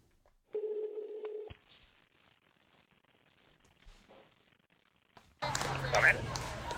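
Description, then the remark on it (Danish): A phone call to Stockholm goes through: one steady ringback tone lasting about a second, a quiet pause, then a loud burst of crackly line noise as the call connects. “hun øh, fangede nogen på en, øh, en lidt knitrende telefonforbindelse i Stockholm, Øhm, øh, til ringede til en af vores kammerater,”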